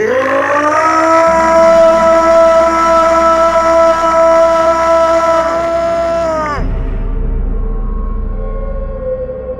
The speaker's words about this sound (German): Der Schrei war im ganzen Dorf zu hören gewesen.